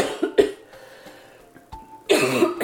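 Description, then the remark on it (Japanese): A few harsh coughs in quick succession from someone with a cold, starting with two sharp bursts and ending in a louder, rougher fit with a throaty edge; no one speaks. “大丈夫風邪ひいてあすいません、うん、そうなんです”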